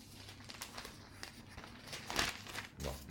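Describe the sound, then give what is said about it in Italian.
Newspaper pages rustle and crinkle as they are flipped while searching for a page, a run of soft papery crackles building to a couple of louder, fuller page turns near the end, with no one speaking. “Eh, che non è pagina 7 perché non saprei neanche dirvi che pagina è forse vediamo se fosse 17 per caso”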